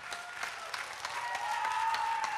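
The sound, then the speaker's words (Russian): Applause from the audience on the summer veranda of the Mayak studio in Sokolniki: a steady patter of many hands clapping for a couple of seconds, bright and dense, with a faint sustained tone running underneath and no voices. “Я хочу услышать бурные продолжительные аплодисменты тех, кто пришел сюда на летнюю веранду в студию «Маяка» в Сокольниках.”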